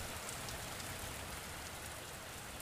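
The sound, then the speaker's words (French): Steady rain falls in Normandy in a continuous, even hiss, with fine drops pattering across a surface. It stays at a constant moderate level with no voices. “Oh, il pleut.”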